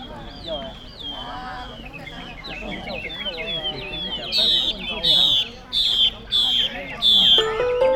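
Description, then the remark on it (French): Many songbirds in small cages chirp and trill together over a busy murmur of people talking, with bursts of bright, repeated whistling calls growing louder toward the end, at a crowded bird market in Vietnam where people listen to and compare the birds' songs. “Alors les gens prennent leur temps, ils discutent, écoutent et comparent les sons qui sortent de ces petites cages.”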